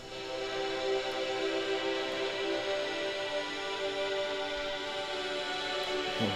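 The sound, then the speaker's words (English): A sustained drone from a synthesizer instrument called Cathedral Wave, thick with stacked buzzing overtones and a hissy, static-like edge, holds at a steady, fairly loud level for several seconds with no one talking. “So it was this this instrument called cathedral Cathedral Wave?”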